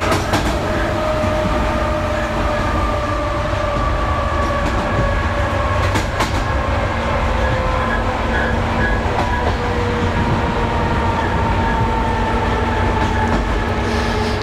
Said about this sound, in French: j'aime les trains qui brinquent-balles, les bogies qui claquent, les châssis qui grincent, les freins qui couinent